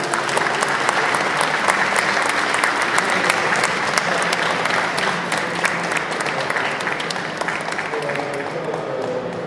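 An audience applauds a guest steadily for several seconds, a dense wash of many hands clapping at an even, fairly loud level that eases slightly toward the end.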